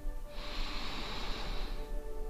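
A single deep breath drawn in through the nose during a guided breathing exercise, a steady airy rush lasting about a second and a half, fairly quiet, with no talking.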